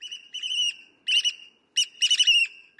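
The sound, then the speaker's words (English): Loud, shrill piping calls from a shorebird, a black oystercatcher, in quick repeated bursts of strident whistles, with brief pauses between phrases and no talking. “Picture a shorebird, like this black oyster catcher, flipping rocks and hammering shells all day.”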